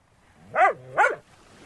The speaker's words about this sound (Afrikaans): Die klein hondjie blaf bly en Dani is seker sy verstaan elke woord wat hy gesê het.